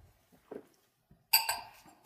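Wine glasses of Chasselas white wine clink together in a toast, three bright, ringing taps in quick succession, the first two close together and each leaving a short shimmering tone.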